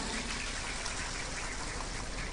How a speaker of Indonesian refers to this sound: Saya minta tepuk tangan dulu dong buat dukuh klomeran kita.